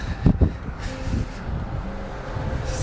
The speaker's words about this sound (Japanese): さあ、結構朝ですけど、車の通りは割と多いですね。で結構ロンドンを歩いていて思うのは割と高級車が走ってるなーっていう感じなんですよねバスはあの車のメーカーボルボなんですけど結構 BMW とかあと意外とベンツのトラックがいっぱい走ってるんですよね